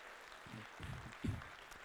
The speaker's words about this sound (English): Give them a round of applause. Cheer them on.